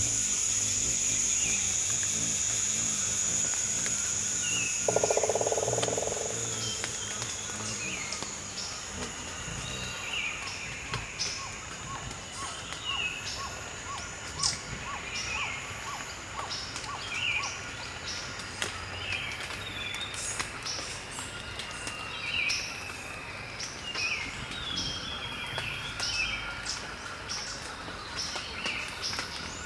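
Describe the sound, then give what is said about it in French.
Sharp, irregular clicks of water drops from early-morning condensation falling on leaves in a tropical forest, scattered through a steady high insect drone with intermittent bird chirps; no voices. “les claquements secs des gouttes d'eau sur les feuilles, avec la condensation du petit matin.”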